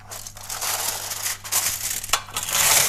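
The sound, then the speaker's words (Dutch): Loud crunching of a crisp snack being bitten and chewed, a dense run of crackly, brittle crunches filling the whole few seconds with no talking. “Dus vandaag ga ik even eten. Luister. Zo knapperig.”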